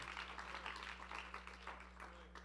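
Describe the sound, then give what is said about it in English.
A church audience applauds steadily during a sermon to thank Jesus, many overlapping claps blending into a dense, even patter that lasts throughout, fairly faint, with a low constant hum underneath. “Come on, let's clap one more time.”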